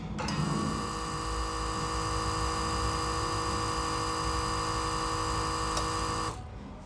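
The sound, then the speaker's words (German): A small aquarium pump, a little bigger than a thumb, hums steadily with a buzzing, whining motor tone and a faint hiss of air. It switches on after the lower tank's water level drops and sucks air from the upper tank to draw water back up. It runs fairly loud for several seconds, then switches off abruptly. “deswegen geht jetzt dieser Mechanismus an, der die Pumpe anschaltet und dadurch dann wieder Luft aus dem oberen Becken raussaugt und so wieder mehr Wasser hinterher zieht sozusagen.”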